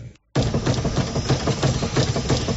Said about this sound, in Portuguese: Mas que barulheira é essa nesse carro? É, é a suspensão que tá muito ruim.